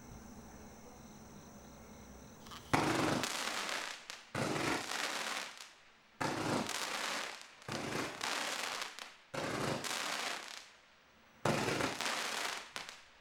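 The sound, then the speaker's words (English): A 20-second firework cake with a crackling crickets effect goes off in repeated bursts, each a dense wash of sharp popping crackles lasting about a second or two, separated by brief quieter gaps, loud with no talking. “I, I love, the crickets.”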